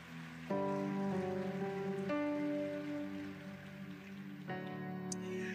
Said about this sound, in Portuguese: Se você crê nisso, dê um aplauso bem forte a Jesus.